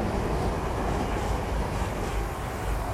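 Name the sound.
train passing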